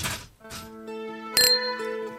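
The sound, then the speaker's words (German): Glasses of sparkling wine (Sekt) clink together in a New Year's toast: three bright strikes, each leaving a clear, sustained glassy ring that hangs in the air between knocks. No voices are heard. “So, ich komme zu dir zum Anstoßen auf das Alte und auf das Neue.”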